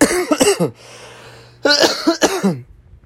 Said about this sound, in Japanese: 咳って急に出ますよね。